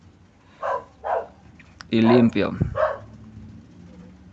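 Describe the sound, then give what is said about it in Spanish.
A dog barks a few times, two short barks followed by a louder, longer burst and one more bark, with a person briefly speaking in between. “ay la perra, chale”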